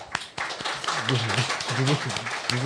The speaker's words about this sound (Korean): 그 폭, 목숨 걸고 폭내준 보도에서 여러분들 박수 한번 주시죠.